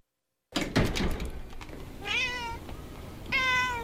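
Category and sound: animal, cat meowing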